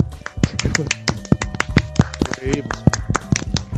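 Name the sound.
applause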